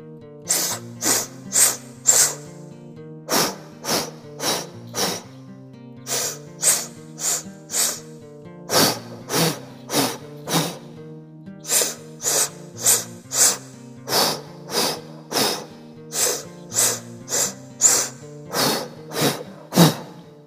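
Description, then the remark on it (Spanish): Sharp, forceful breaths during an active body breathing exercise pulse in quick rhythmic sets of about four, each set followed by a short pause, repeating steadily over soft background music. Nobody speaks. “Vamos de nuevo, vamos a respirar.”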